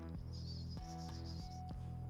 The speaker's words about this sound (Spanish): Cuando se activa tu micro. Y no hay manera, ¿eh? Con eso. Pero es porque tengo el ventilador aquí al lado. No, no, no, hazme caso. Es como un zumbido eléctrico.